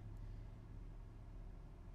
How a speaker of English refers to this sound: They're like pulling a truck with a chain, chain to another truck.